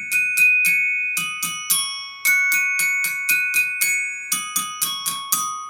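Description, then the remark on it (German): A glockenspiel plays a bright, ringing melody with mallets, about twenty quick struck notes in short phrases, each note sustaining with a shimmering metallic tone; clear with no voices. “Hier gibt es noch ein Glockenspiel.”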